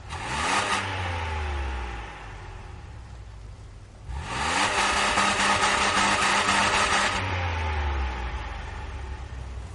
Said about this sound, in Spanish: El escritor camina ahora por una zona residencial. Un coche en el que viajan dos personas se coloca a su lado.